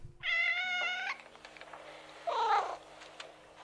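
A cat gives a long, clear meow followed after a short pause by a second, briefer and lower meow, both fairly loud with no one speaking.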